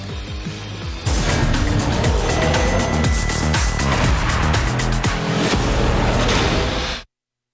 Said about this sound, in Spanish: Ya rugieron los motores este fin de semana en el Gran Premio de España en Fórmula 1.